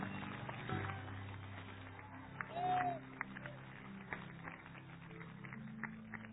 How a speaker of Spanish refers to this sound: Alguien que crea eso, que le dé un aplauso fuertísimo.